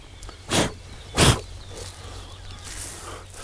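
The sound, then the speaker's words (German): Two short puffs of breath blowing sand off a mushroom, a brief pause between them, over a quiet outdoor background with no talking. “Das Pusten, was ihr jetzt hört, ist äh, der ja, du, gleich”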